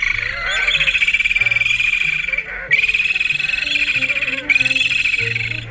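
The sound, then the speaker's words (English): Parakeet auklet calls: three long, rapidly pulsing, buzzy trills follow one another almost without pause, loud, with no talking. “The parakeet auklet, the Thea sitacula, today's Talking Birds featured feathered friend.”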